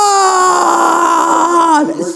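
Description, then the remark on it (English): A man's voice lets out a long, loud, anguished wail imitating a scream from hell in the film Spawn, where Michael Jai White is sent to the depths of hell, holding one strained pitch for about two seconds before it cracks and drops away. “Nigga, they sent Michael Jai White to the depths of hell yeah. screaming, Wanda!”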